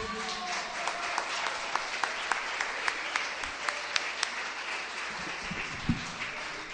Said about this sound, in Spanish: ¿Qué pasa aquí al frente, por favor? Les voy a pedir un aplauso fuerte.